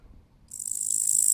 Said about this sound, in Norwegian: Sånn her høres en gresshopper ut.